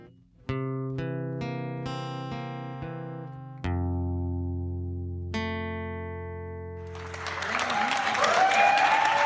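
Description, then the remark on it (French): Sustained musical chords ring out for several seconds, then a burst of clapping from people at their windows in a Paris neighbourhood, applauding healthcare workers as every evening, swells in at the end, with scattered high whistles over the steady applause. “Des applaudissements pour les personnels soignants, comme dans ce quartier parisien tous les soirs.”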